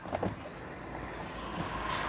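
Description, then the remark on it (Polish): Steady, low-level road traffic noise in Ursus, with cars rumbling and hissing past in a continuous wash of sound, no voices. “Dobra, zostawię Wam trochę okna, co tam, będziecie obserwować samochody, trochę tego ruchu.”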